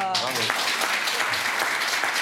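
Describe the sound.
An audience breaks into dense, steady applause for a guest who has seen 2,183 concerts, many hands clapping together at an even loudness throughout, with a short voiced exclamation at the very start.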